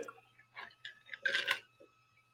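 A quiet sip from a drink: a few soft wet slurping noises building to a brief louder gulp, then a faint swallow, with no one talking.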